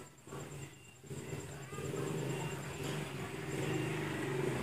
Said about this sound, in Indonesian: iya ya liwat nih sepeda motor